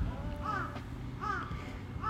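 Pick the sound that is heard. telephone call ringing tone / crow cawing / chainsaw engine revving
crow cawing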